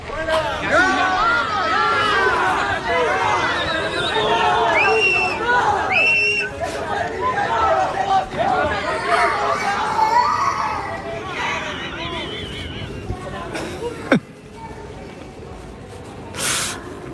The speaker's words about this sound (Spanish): ¿Era el niño llorando?